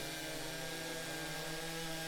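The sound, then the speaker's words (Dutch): A saw whines steadily as it cuts through a slice of material, a continuous motorized drone with a low hum, moderately quiet and uninterrupted, with no voices. “Moet je kijken hoe mooi zo'n plakje zaagt.”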